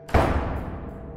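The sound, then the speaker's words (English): A single loud bang as a kitchen door is slammed shut, with a deep thud that rings and fades over about a second. No voices. “I was startled, and when I turned round, I only caught the last moments of the kitchen door being slammed shut with a bang.”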